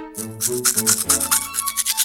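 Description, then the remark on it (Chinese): A cartoonish sound effect of a bear rolling out of bed: quick rhythmic rustling, scuffing strokes over a short bouncy musical tune, with no talking. “是小熊从床上翻身下床的声音。”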